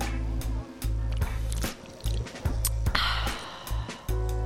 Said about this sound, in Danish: Skal vi ikke lige skåle og smage på det? Lad os lige tage en skåler. Og så bare helt op i snotten af mikrofonen, så vi kan høre, hvordan det lyder.